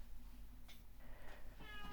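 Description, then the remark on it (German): A pet tomcat meows a few times, drawn-out calls with a rising, nasal tone over a steady low hum, moderately loud. “Okay, da ruft mein Kater.”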